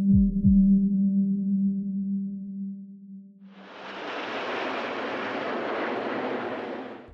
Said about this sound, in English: the perfect way to start an air show. The Red Arrow's just some of 200 military and civil planes displaying today at Farnborough